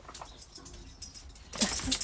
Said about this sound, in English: hold on, my dogs are being crazy. Can you chill out?